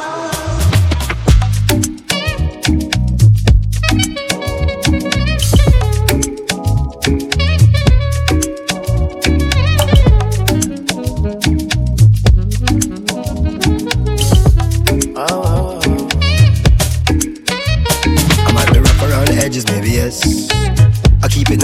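An afrobeats-reggae song plays loud, with a steady, bouncing bass-heavy groove and layered melodic parts running continuously throughout.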